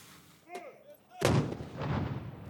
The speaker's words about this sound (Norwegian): Den franske republikken sparte ikke på seg selv da makten skiftet hender sist helg. Det var salutter fra Hotel des Invalides.